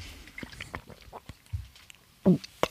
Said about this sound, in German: Nein, ich trinke einen Schluck Wasser.